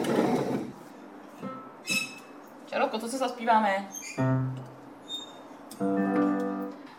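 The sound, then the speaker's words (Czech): A few steady piano notes on an upright piano standing in a corner of a kitchen ring out in the second half, following a short spoken question; the tones are sustained and moderately loud. “Eh, ano, je tady tak schovaný, protože je tady dost prostoru i mm, pro pianino, které tady má svůj koutek a vlastně vůbec nepřekáží v kuchyni.”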